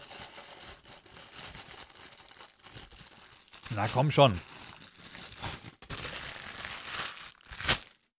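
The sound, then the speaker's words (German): Crackly rustling and crinkling of packaging being unwrapped, continuing in uneven bursts for several seconds, with a man briefly speaking midway and a sharper crinkle near the end. “Rusch, raschel, raschel, ASMR.”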